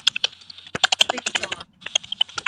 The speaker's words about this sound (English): Somebody's typing or something?